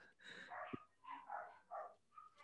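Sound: dogs barking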